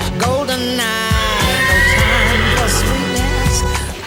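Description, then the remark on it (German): A mare whinnies loudly for about four seconds, a shaky, harmonic call that rises and falls in pitch, with no talking over it. “Im Sommer sieht die Stute aus wie ein, wie ein Gemälde und die glänzt wie Gold.”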